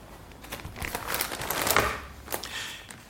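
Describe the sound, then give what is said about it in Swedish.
Dry paper rustling and crinkling, with a few sharp crisp flicks as pages of old newspaper articles in an A3 binder are turned over, swelling in the middle and tapering off, no voices. “Vi bläddrar vidare i de gamla artiklarna.”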